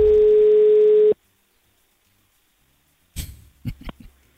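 A single steady telephone ringback tone of an outgoing phone call buzzes for about a second, then silence follows before a burst of rustling, throaty noises and clicks as if the line is picked up.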